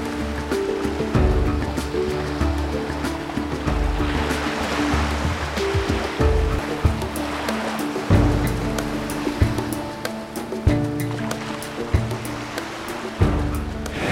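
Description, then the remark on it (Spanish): Ocean surf rushes and roars steadily at a river mouth on a beach, a continuous wash of breaking waves with deep rumbling surges and a strong undertow. A soft sustained musical tone hums underneath, and no one speaks. “aprovechando que acabamos de pasar un río y realmente sentimos eh, el poder del mar en la desembocadura, se sentía una resaca muy fuerte.”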